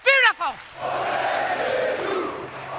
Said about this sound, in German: ja, eine Wahlkampfveranstaltung und zum Schluss hört man eben die Sprechchöre ihrer Anhängerinnen und Anhänger, die sagen, on est chez nous, also wir sind, wir sind zu Hause, das ist unser Zuhause, äh, wir gegen sie